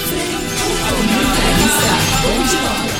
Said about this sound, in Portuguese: É. Eu vou soltar a vinhetinha